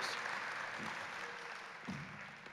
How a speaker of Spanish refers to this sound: ¿Qué tal si le damos un aplauso a estos chicos?